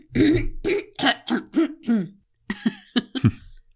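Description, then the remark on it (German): A series of loud throat clearings into a microphone, roughly a dozen short rasping bursts in quick succession with a brief pause midway. “Schön mal ins Mikrofon räuspern.”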